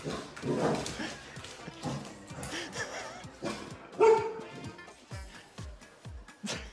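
A husky, baffled after its owner drops a held-up blanket and runs away, lets out a series of irregular barks and yelping vocalizations, fairly loud, with a sharper bark near the middle and soft thumps in between.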